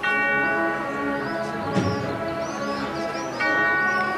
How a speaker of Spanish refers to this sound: La campana, el sonido de la campana en esa barra golpeada con un mazo de madera por el primer músico de la banda.